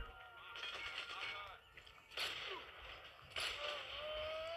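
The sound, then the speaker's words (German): Two loud, sharp video game sniper rifle shots ring out about a second apart at a single opponent, each a sudden blast that trails off, over a busy bed of game sounds with faint tonal whistles. “Zwei Schüsse für einen.”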